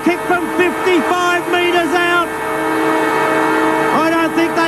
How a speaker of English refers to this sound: There's the siren, and he's got it.